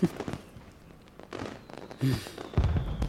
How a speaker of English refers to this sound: fireworks are lovely, though, aren't they? Uh, yeah, they are.